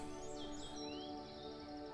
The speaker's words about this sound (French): Les oiseaux et leurs chants vous accompagnent dans cette ascension.